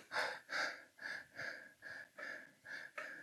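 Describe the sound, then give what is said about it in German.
A person demonstrates the shallow breathing most people do: about eight quick, airy breaths in a steady rhythm, each a short hiss of air, with no talking. “die atmen so, die atmen weniger und die, die Ausatmen auch vom Kohlendioxid ist reduziert”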